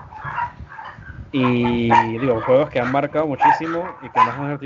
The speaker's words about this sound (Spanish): Y disculpa por los perros que tengo en el fondo, que no sé por qué dan tanto.